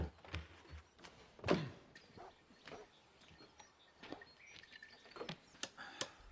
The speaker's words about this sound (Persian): تق را هم که شنیدید صدای نجاری است که بیرون اتاق دارد میزی میسازد پایهاش بلند